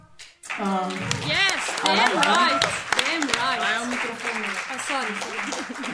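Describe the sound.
A live crowd claps steadily, the scattered sharp claps mixing with several overlapping voices talking and calling out throughout.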